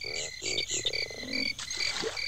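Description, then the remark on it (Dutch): Bayou ambience from a full ride-through recording of a Parks and Resorts ride, thick with croaking frogs: repeated low, pulsing croaks rise and fall over a steady bed of high insect-like chirring and trilling, busy and moderately loud throughout. “We zijn in een bayou ergens.”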